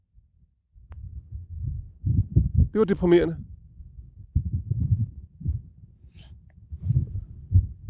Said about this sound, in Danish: man er nødt til at stå lidt tæt, så man kan høre, hvad hinanden ja, det siger. Det, det blæser det, helt vildt jo.